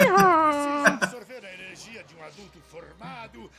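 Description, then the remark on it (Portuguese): A squeezed rubber chicken toy lets out a loud, wavering squawk lasting about a second, ending in a short extra honk, and then a person starts talking. “Não é de bebê, não, é um brinquedo. É aquela galinha que, você aperta.”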